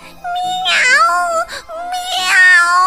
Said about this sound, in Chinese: 正当他决定要把猫食放进嘴里时，小猫柏拉图把鼻子贴到了露娜的鼻子上，喵喵的叫了起来。